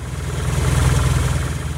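A car engine idles steadily throughout, a low rhythmic rumble with a faint vibrating hum above it, constant with no voices present.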